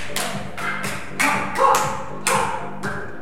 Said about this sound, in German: Die Kinder stehen im Kreis. Einer klatscht zu jemandem herüber, der klatscht zu jemand anderem weiter. Es geht schnell hin und her.